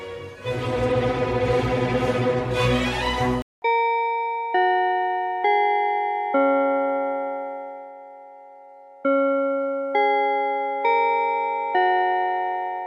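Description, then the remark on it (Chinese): A bell chime rings out a slow melody of eight bright, sustained tones in two phrases of four, each note ringing on as the next begins, after a short burst of dense, noisy sound. “那等一下我们钟声过后呢，就要开始今天的科技早自习喽。”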